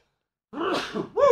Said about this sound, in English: Bless you. Thank you. I was trying to hold it in. I was trying to fight it back. Couldn't get it there. Best to let it out.